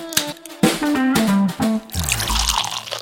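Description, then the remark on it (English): A few bright glassy clinks and ringing tones, then a steady gurgling pour of liquid into a glass that fills the last second or so. No one speaks. “For now, time to go to the drinks cupboard, um, get out a couple of nice bits of glassware, load something into them, and we'll be back with the Sunday sip in just a sec.”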